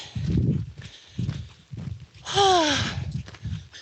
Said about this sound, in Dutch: En zoals je hoort aan het gekraak van mijn rugzak en mijn indrukwekkende voetstappen, ben ik nog aan het lopen.